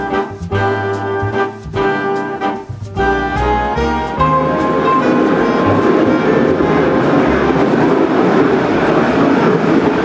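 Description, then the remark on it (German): A small mountain railway, the Kurwaldbahn, rolls past, its wheels clacking rhythmically over rail joints before giving way to a steady, loud rumble and hiss as the cars go by. It runs steeply up the mountain. “Was wir da gerade gehört haben, war die sogenannte Kurwaldbahn.”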